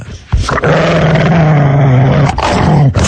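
A dog growls and roars loudly in a sustained, rumbling snarl lasting a couple of seconds, with a brief break before a second growl.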